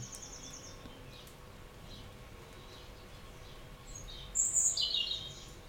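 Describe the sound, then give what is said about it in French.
A bird sings a short burst of bright, high chirps near the end, standing out over a soft, steady outdoor background hum, with occasional rumbles of distant thunder beyond the bird. No voices are present. “Parfois on entend quelques grondements d'orage loin, au-delà de l'oiseau qui chante.”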